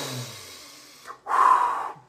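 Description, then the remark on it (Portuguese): During a guided breathing exercise, a slow, deep breath is drawn in through the nose, a brief pause, then a fuller, louder breath pushed out, clear with no talking. “Vamos lá, respire comigo, inspire.”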